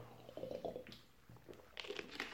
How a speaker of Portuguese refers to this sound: Eu queria agradecer de coração, beber um gole d'água